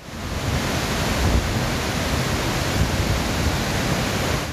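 A steady, thundering roar of heavy water pouring down the overflowing Ağran waterfall in Çayeli district, loud, a dense unbroken rush filling the whole clip with no voices.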